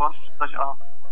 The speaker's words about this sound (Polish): No, Dobra, e, dzwoni telefon i echo jest straszne. Wyłącz tam głośnik, słuchawki jakieś włącz czy coś